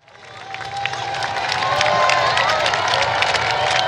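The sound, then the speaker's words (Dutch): A large outdoor crowd along the roadside, by the windmill and the Amstel, cheers and claps, the noise swelling in over the first second and then holding steady as dense, continuous applause with scattered whoops and shouts. “Veel publiek hier langs de kant.”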